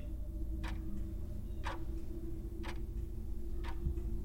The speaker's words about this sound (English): Its pendulum swung to and fro with a dull, heavy, monotonous clang.